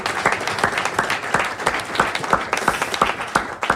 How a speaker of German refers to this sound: Also auch dafür bitte einen Applaus. Würde ich schon gerne hören.